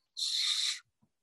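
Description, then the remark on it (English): A voice imitates a football thrown hard by Pep, traveling 17 or 18 yards from center to the sideline, whistling through the air: one steady, breathy, high-pitched whoosh lasting over half a second, followed by a faint low bump. “So Pep throws it Whew, so hard you can hear whistling.”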